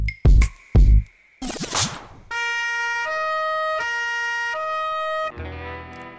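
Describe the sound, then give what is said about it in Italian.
Two loud thuds and a brief rushing noise give way to an Italian carabinieri police car's two-tone siren, alternating high and low notes steadily and loudly for a few seconds, with no talking. “A momenti i carabinieri sarebbero arrivati dentro casa mia”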